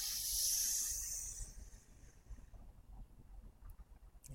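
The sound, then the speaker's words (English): A long, airy breath rushes out for about a second and a half during a deep breathing exercise, breathing deep into the belly; a loud breathy hiss that fades into quiet low rumbling with no talking. “Breathing all as much as you can.”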